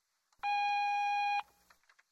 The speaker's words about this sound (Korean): 삐소리 후 메모 남겨주시면 연락드리겠습니다.